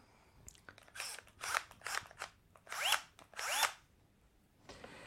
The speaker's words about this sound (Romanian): Ce am prins din oferta EMAG de la reducere este o mașină de înșurubat și bor mașină.